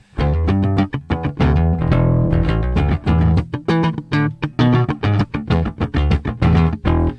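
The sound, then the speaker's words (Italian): Electric guitar strummed in a steady rhythm of full chords, with a warm, lightly overdriven tone that is smoother and less biting, ringing loud with brief gaps between strokes and no voices. “ok, qua mi faccio un suono un attimo più... Mm, M- meno cattivo. Meno, esatto, meno aggressivo.”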